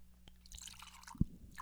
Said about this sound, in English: Will you pass the bottle over here, please, gents? Give myself a little pour.